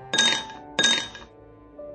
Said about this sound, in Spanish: Después se sentó de nuevo con la costura y su marido enfrente, con el alto vaso de whisky entre las manos, moviéndolo de tal forma que los cubitos de hielo golpeaban contra las paredes del vaso.